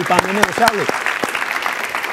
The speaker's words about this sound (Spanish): Ahí es, oye, un aplauso para el hashtag